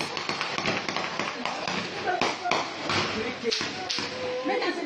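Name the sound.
gunshots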